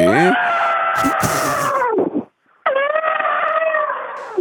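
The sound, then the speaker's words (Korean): An elephant trumpets twice, loud: a long brassy blare of about two seconds, a short pause, then a second sustained, strained call. “자, 박명수의 라디오쇼 여러분께 내드렸던 퀴즈의 정답은 코끼리였죠.”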